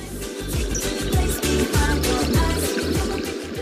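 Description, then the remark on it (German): Sea waves on a small island in the middle of the Indian Ocean rush in a steady, fairly loud wash of noise, with a low rumble underneath and no clear breaks or voices, while the sun shines. “Das Meer rauscht, die Vögel zwitschern und die Sonne scheint.”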